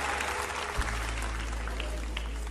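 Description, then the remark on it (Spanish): A large crowd claps steadily, a dense wash of applause, with a low hum running underneath. “Denles un buen aplauso y si gustan pasar.”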